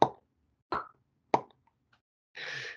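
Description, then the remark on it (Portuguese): Three sharp mouth pops, spaced about half a second apart, imitating the bursting of a shrub's fruit that had only air inside, followed by a brief breathy hiss; fairly loud, with no talking. “Você pode lembrar do, a, da, do aquele arbusto arar, que a gente falou que era uma planta bonita, mas dava um fruto que tinha um, fazia um barulho assim.”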